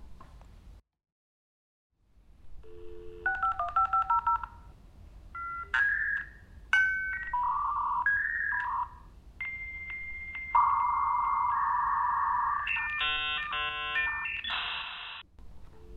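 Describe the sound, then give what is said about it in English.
A dial-up internet modem dials a string of tones, then screeches and warbles through its connection handshake with bursts of hissing noise and shifting electronic tones, loud with no talking. “Now, only 3% of American adults still clean up to dial-up internet.”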